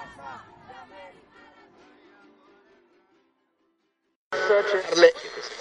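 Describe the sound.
Many voices chant together at the 20 November protest march for the 43 of Ayotzinapa, fading away into near silence, then a loud burst of crowd noise and shouting abruptly cuts in.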